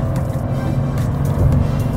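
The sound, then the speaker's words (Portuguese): A car's 12-valve engine, with four valves per cylinder, pulls hard with a steady, loud low rumble, heard from inside the car as it accelerates to overtake on a road in Florianópolis, heading to Costão do Santinho, swelling slightly toward the end. No one speaks. “Vamos testar um pouquinho o torque agora, fazer uma ultrapassagem.”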